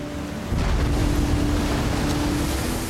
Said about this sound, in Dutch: Het schip is zwaar geladen en ligt daardoor al diep in het water. Grote golven slaan voortdurend over het gangbord naar binnen, waardoor de lading bakstenen drijfnat wordt.